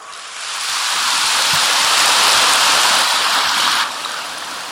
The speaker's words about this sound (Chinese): 鼓掌的不多，就是没听懂。啊，现在呢，为了装成听懂了，假装嘛拼命鼓掌，吓得又不敢鼓掌了。